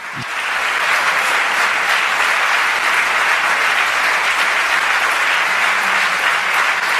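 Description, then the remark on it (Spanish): Sustained applause for Puigdemont from a large crowd, a dense, steady roar of clapping that stays loud and even for about seven seconds with no voices standing out. “Puigdemont, después de los aplausos.”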